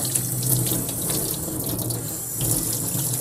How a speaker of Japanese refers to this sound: まあね、ちょっと手を洗っております。手を洗っているので、ちょっとお水の音が聞こえるかもしれません。